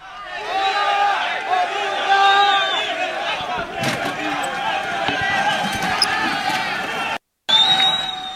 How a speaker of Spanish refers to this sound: Vamos a escuchar parte de este momento en que se da este enfrentamiento entre la Guardia Nacional y esta caravana migrante que está saliendo ya hoy de Tapachula, Chiapas.